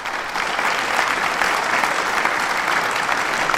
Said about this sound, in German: ja, dann würde ich sagen, zum Abschied äh, noch ein bisschen Applaus.